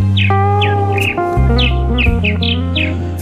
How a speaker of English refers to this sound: The purple martin, Progne subis, today's Talking Birds featured feathered friend.